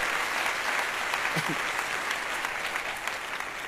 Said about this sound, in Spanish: Fuerte el aplauso, mi compadre.